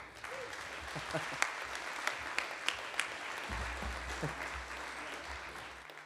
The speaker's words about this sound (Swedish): …. Kan vi ge dem en bättre applåd?